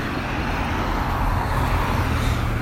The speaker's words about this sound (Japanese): さあ相変わらずねあの ちょっと歩きながらなんでしかもここね交通量が結構ねあの夕方になると多くなる道路なのでね車の行き交いが結構激しいっちゃ激しいんですけどもね